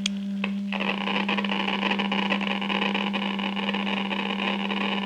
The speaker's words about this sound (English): Gentlemen. Gentlemen. Unless this machine is busted, unless this Geiger counter has forgotten its multiplication table